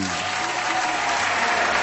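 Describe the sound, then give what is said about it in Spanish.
Steady applause from the audience of the programme Una ventana al sol, a dense, even wash of many hands clapping at once, fairly loud and sustained throughout with no voices standing out. “¿Dónde estaba el aplauso para el amigo?”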